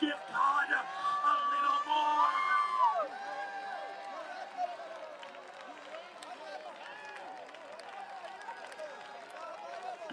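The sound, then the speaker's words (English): A crowd of worshippers shouts and cheers loudly, with a burst of strong, overlapping yells that then settle into a steady, busy murmur of excited voices continuing throughout. “Come on, I think you can shout a little louder. I think you can worship a little greater.”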